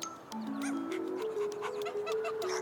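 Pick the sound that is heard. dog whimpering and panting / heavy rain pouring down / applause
dog whimpering and panting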